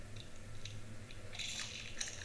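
Wet crunching and cracking of bones as an animal chews its prey, a steady series of gritty bites and snaps over a low background hum.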